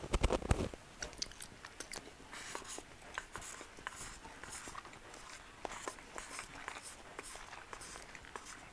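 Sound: chewing food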